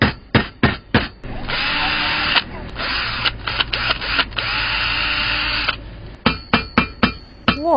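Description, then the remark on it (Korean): Sharp, loud hammer strikes in quick bursts bracket a long, steady whine of an electric drill running through the middle, busy, at an interior renovation site where electrical work is being done, with no voices. “전기 공사하는 드릴 소리부터 망치질하는 소리까지 거의 뭐 ASMR 버금가게 생생한 소리가 도착해 있다고 합니다.”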